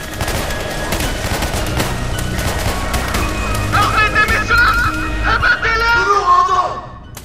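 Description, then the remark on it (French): Rapid volleys of sniper gunfire crackle in dense bursts, sharp cracks overlapping throughout, while frantic screaming and shouting voices rise over the shooting in the second half before it cuts off. “Des tirs de sniper auraient retenti.”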